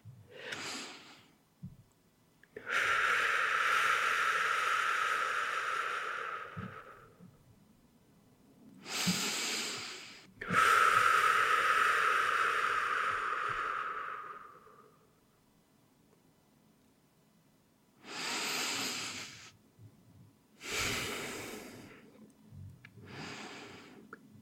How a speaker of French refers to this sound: Sentez votre corps se reposer, se déposer à chacune de vos expirations qui se font de plus en plus profondes, de plus en plus longues.